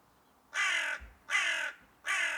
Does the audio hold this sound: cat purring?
no